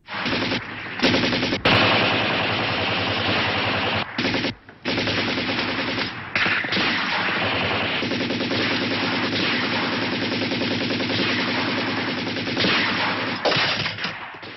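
Sustained machine gun fire rattles in dense, rapid bursts with scattered single gunshots, loud, from a firefight between Germans and Yugoslav partisans in the 1974 Yugoslav feature film Partizani, continuing almost without pause and no voices heard.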